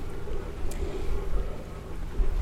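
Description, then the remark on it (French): A steady, low engine drone of a sailboat motoring toward Camaret after the wind has completely dropped, with a constant rumble and wash of water and wind noise around it, unbroken throughout. “on est en train de faire route vers Camaret et le vent est complètement tombé donc on continue euh, pour le moment au moteur.”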